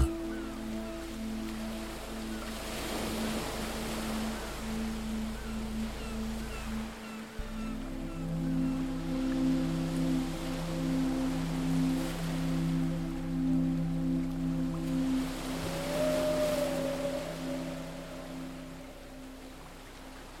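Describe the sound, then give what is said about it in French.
Soft ocean waves wash in and recede on a beach in slow, broad swells, layered over a steady low humming drone with sustained tones. No one speaks. “fil des vagues qui vont et viennent”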